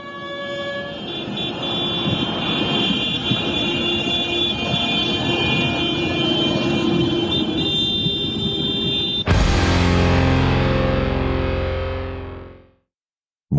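At a nighttime blockade in Paris, with tractors filling the lanes, heavy engines rumble steadily while sustained horns blare over them, loud and continuous; near the end the din swells into a harsher roar, then abruptly drops to silence.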